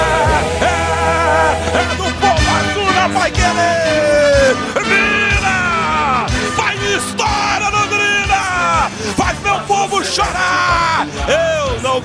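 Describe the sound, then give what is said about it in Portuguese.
A stadium crowd of Londrina's albiceleste fans erupts after Safira scores a goal: loud, sustained roaring with excited yells and whoops rising and falling in pitch, staying intense for the full twelve seconds. “Explode a galera albiceleste.”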